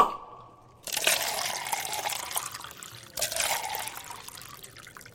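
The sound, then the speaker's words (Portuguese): Whisky, without ice, is poured into a glass: a short rising gurgle, then two bursts of splashing, trickling pour with a brief pause between them. No one speaks. “Ah, acho que eu vou beber um um uísquezinho sem gelo, né?”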